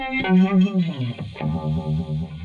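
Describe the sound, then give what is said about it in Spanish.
A sustained electric guitar phrase drenched in the swirling, throbbing modulation of a Univibe effect, the tone wobbling like a Leslie rotating speaker, played fairly loud with no voices. “Se parece a un Leslie, pero no es un Leslie.”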